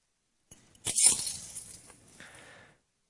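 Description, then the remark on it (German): A heavy set of handmade keys jangles in a brief burst of bright metallic clinks, peaking quickly and then rattling more softly for a second or two before falling quiet. “gebe dir mal einen Schlüssel”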